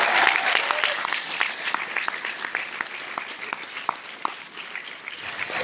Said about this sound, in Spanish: A esta está le damos un fuerte aplauso y ya le vamos a